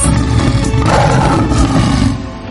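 A lion lets out a single loud, deep, rumbling roar that sustains for a couple of seconds before tapering off slightly, powerful with no talking.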